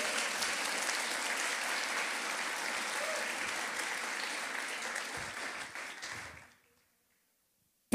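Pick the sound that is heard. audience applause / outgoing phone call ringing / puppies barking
audience applause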